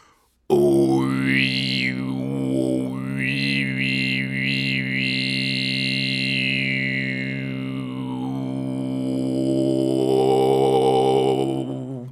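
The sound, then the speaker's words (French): A single voice holds a long, steady 'i' vowel, its pitch rising and falling in smooth waves that create a rhythmic, undulating pattern for about twelve seconds, fairly loud. “C'est pour faire, pour onduler, pour faire des vagues.”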